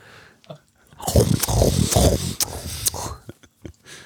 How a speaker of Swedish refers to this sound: Men hörru. Dra bort micken om du ska tugga kinespinnar.